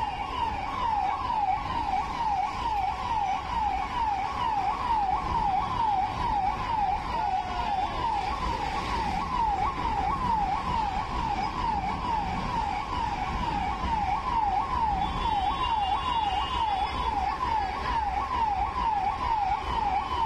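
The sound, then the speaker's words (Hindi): An ambulance siren wails continuously in a fast, repeating up-and-down pattern, loud and steady over a constant rumble of traffic engines, with a brief higher tone joining near the end. The ambulance is among vehicles stopped for Amit Shah's convoy near Marol Naka Metro Station in Mumbai. No one speaks. “मरोल नाका metro station के पास का है यहाँ से अमित शाह का काफिला जाता हुआ दिख रहा है और उसके दूसरी तरफ कई गाड़ियों को रोका जाता है जिसमें एक एम्बुलेंस भी शामिल है”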